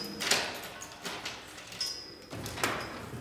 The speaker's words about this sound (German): eine schwere Tür.